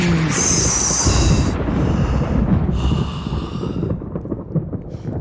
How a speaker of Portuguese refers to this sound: trovões trovões